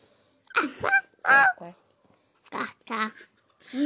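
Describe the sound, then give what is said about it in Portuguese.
A voice imitates a duck, giving five or six nasal, honking quacks in an uneven rhythm, fairly loud, with short pauses between them. “Eu não, grasnou o pato.”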